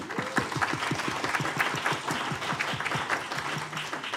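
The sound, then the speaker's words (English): A round of applause for a company now being in over 100 countries: steady, dense clapping from a small group, evenly loud throughout the few seconds, with no speech over it. “As of this week, round of applause.”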